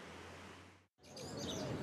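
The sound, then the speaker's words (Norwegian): Seagulls screech over a steady wash of outdoor noise like wind or surf, with a brief break before the cries come through more clearly. “Sola skinner, måkene skriker, og vi legger ut eh, teppe og piknikkurv i eh, parken.”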